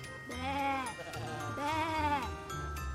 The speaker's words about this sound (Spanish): ¿Y ese sonido? ¡Así hacen las ovejas! exclamó con emoción.